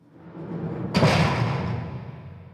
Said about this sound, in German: die Tür von seiner Zelle in der U-Haft zugeht, geht draussen eine riesige Maschinerie los.